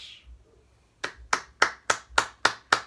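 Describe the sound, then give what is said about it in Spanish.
A run of seven crisp hand claps at an even, steady pace, close and fairly loud, following a brief quiet moment with no talking. “Aplausos por eso porque fue como pues el karma, pero pero no, no, no.”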